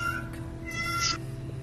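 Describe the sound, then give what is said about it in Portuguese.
A cat meows in a short, drawn-out call with rising tonal harmonics over a steady low background hum; no one speaks during it. “Exato, eu acho que eu concordo que seu gato acho que concorda, né, até com a gente, né?”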